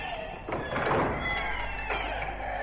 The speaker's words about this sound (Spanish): ¡No! Los monstruos avanzan hacia aquí. Abramos esta puerta.